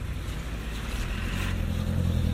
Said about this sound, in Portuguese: Desculpe, estou na rua, está muito barulho.